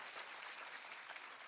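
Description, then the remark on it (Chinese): A church audience applauding together to give glory to God, a dense, steady wash of many hands clapping with a few sharper individual claps standing out, moderately loud and with no voices over it. “再次拍手，把荣耀归给他，好不好？”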